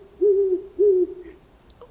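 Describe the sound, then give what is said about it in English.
An owl hoots twice, two low, smooth, drawn-out calls separated by a brief pause, clear against a quiet background. “I'll give it some thought and I'll send you a note through my trusty owl.”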